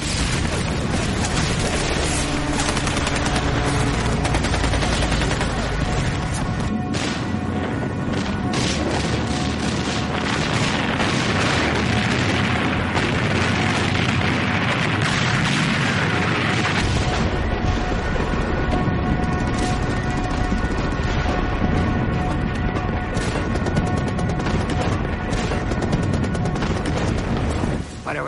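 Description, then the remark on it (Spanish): A dense, unbroken battle din during an invasion landing, with rapid gunfire and German shells exploding ever closer, aimed at the landing craft, and heavy booms rumbling underneath. The noise stays loud and chaotic throughout, with no quiet gaps. “y cómo los proyectiles caían cada vez más cerca de nosotros, iban dirigidos a las lanchas de desembarco.”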